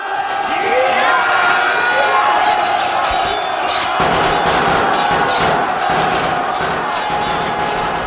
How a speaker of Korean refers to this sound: 장군! 왜적이 조총을 쏘면서 성치 안으로 들어가고 있습니다! 겁내지 말고 추격하라!